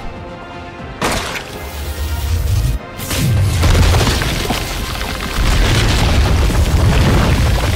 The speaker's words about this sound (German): ergriff die Railgun und feuerte.